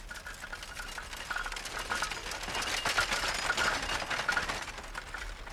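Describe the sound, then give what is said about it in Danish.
A horse-drawn cart rolls by through a village in Turkey at evening dusk, with a steady, rapid rattle and clatter of wheels and hooves, swelling slightly in the middle before easing off, with no voices. “En hestekære kører forbi.”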